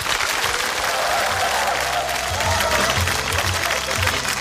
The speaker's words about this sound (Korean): 여러분 박수를 청해 주시기 바랍니다. 네.